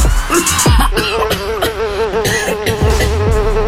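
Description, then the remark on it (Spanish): A housefly buzzes, its whining drone wavering steadily in pitch for several seconds, with a few small coughing sounds popping in alongside it. “Tu cabeza zumba conocimientos”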